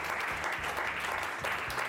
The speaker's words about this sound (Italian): Eh già, applausometro signori!